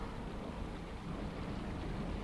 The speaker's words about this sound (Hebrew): מזלי שהתחיל לרדת גשם וכולם ברחו הביתה.